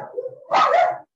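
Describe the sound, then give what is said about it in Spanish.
A small dog gives a soft whine, then a sharp, fairly loud yappy bark: a brief burst of high-pitched barking from small dogs, with no talking. “disculpa el ruido si escucha a los perritos este, ladrando.”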